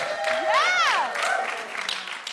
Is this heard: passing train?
no